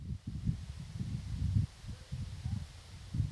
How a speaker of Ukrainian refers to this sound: Так зараз звучить зона відчуження.